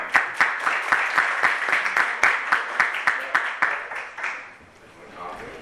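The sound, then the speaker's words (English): A group applauds people attending their first session of a dinner discussion series, steady, crisp clapping at full strength for about four seconds, then thinning out and fading away over the last second or so. “So, big hand of applause to you.”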